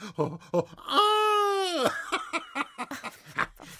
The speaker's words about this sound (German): das saß. So ist's recht. So musst du schreien.